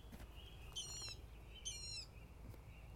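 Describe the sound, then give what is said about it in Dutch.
A water rail gives two short, shrill squealing calls, each under half a second, rising clearly above a low steady rumble of background noise. “Wij noemen dat het speenvarken van het moeras. Het speenvarken. Nou, je hoorde het ook net in.”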